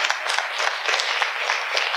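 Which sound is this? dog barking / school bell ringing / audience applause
audience applause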